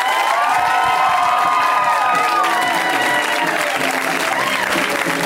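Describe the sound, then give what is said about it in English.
A show audience applauds loudly and steadily to welcome a guest on his first time on the show, with cheers, whoops and high shouts rising over the dense clapping for the full five seconds. “Whenever it's somebody's first time on the show, we go very wild and we welcome them with an extra amount of applause and love.”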